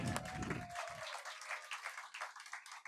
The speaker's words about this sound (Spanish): Levante la mano. Es otro aplauso.